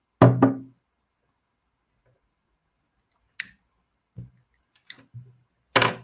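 A lighter is set down into a glass of water, giving a handful of sharp knocks and clinks: a double tap at first, then scattered single taps after a pause, with no talking.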